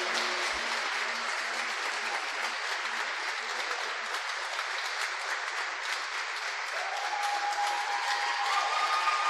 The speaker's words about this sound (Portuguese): Vamos aplaudir ao Senhor com todas as nossas forças. Aleluia.